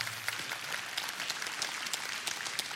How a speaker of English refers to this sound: yeah, you clap, it's fine.